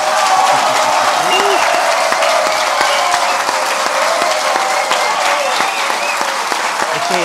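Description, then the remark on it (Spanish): A packed audience in the completely full Teatro Soco applauds loudly and steadily for the full stretch during a live show, a dense wash of many hands clapping, with faint crowd voices and cheers mixed in. “Bueno, estamos con, como siempre, con un público maravilloso, Teatro Soco lleno completamente.”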